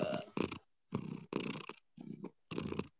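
A cat purring, a steady rumbling that pulses in rhythmic waves with short pauses between breaths, fairly loud and with no one talking.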